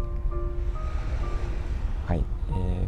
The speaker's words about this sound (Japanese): 今日はですねこの海岸の波がすごく穏やかで、えー、綺麗で本当に誰もいなくてえっ、ー、と快晴で富士山がよく見えています